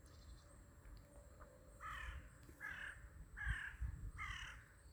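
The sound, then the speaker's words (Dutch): A crow caws four times in a steady rhythm, each call harsh and raspy, heard clearly over a low background rumble with no one speaking. “De kraai geeft elke keer het startsignaal.”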